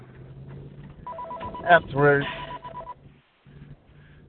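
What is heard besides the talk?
telephone ringing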